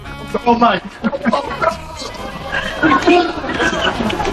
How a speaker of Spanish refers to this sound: escuchar una estampida de personas corriendo y luchando por tener un sitio en una hamaca de la piscina